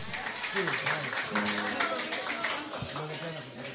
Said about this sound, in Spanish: bueno, pues vamos a aplaudirles a, ellos, a, todos, a todos, básicamente por, por esta propuesta